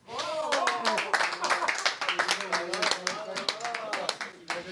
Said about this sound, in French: Bravo, on peut applaudir.